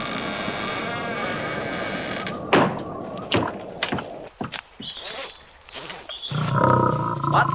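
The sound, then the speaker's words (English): A talking lion, Aslan, Lord of Narnia, roars loudly in several rough bursts, with deep growls in between, over a steady rush of howling blizzard wind. “A talking lion? I must be dreaming.”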